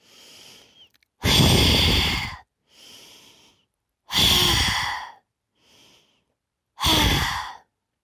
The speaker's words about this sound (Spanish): antes de gritar, respiro. Respiro profundo. Respiración del guerrero. Tres veces.